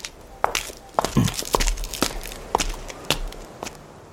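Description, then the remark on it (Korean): Footsteps of a person walking toward a parking lot at a steady pace, about seven or eight distinct steps with a slight gritty crunch on each, roughly one every half second, with no talking. “나는 뒤도 돌아보지 않고 주차장 쪽으로 걸어갔다.”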